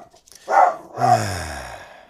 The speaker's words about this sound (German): wollten wir nicht eine Folge schaffen ohne Hundegebell?